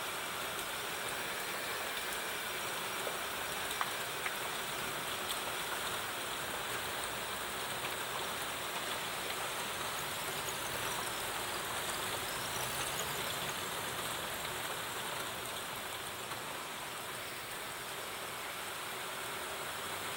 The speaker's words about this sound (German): Nur der sporadische Windstoß, das Anschwellen und Nachlassen der Wassermassen dirigieren über langanhaltende Zyklen einen Rhythmus in die scheinbare Gleichförmigkeit.